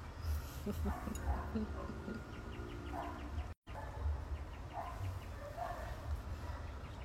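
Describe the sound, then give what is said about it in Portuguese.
Birds chirp in quick, repeated bursts throughout over a constant rushing outdoor background, with lower calls mixed in and a brief dropout midway. “Tinha muito som de passarinho.”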